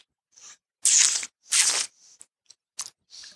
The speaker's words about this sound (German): Äh, bevor du äh, äh, schlürfst, wie, wie verkosten wir richtig? Ja. Also wir verkosten richtig, indem wir tatsächlich äh, schlürfen ist erlaubt beim Verkosten. Es wird also in den Mund genommen.